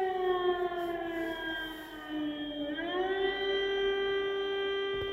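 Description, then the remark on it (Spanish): A loud air raid siren wails steadily, its pitch dipping low and then rising again in a long mournful sweep, heard alone with no voices. “Es un sonido como este que has grabado tú misma, Sí, eh, y es un sonido al que yo no he conseguido acostumbrarme en los días que pasé allí es un sonido que se te mete en el cuerpo de alguna manera.”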